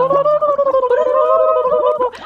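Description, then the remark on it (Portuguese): A person makes a loud bubbling noise with their mouth, a steady voiced hum broken by rapid gurgling flutters, lasting about two seconds with no speech, then cutting off. “Tem que fazer borbulha”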